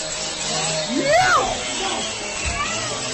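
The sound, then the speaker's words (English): A power saw buzzes steadily throughout while people inside a pub scream over it during an attack, one high wavering shriek rising and falling near the middle, all in a harsh, noisy, chaotic scene. “Uh, the saw can be heard over people's screams.”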